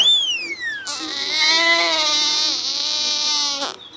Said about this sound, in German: Baby heult. Es mag heute nicht in seiner Obstkiste liegen. Das ist ihm viel zu langweilig.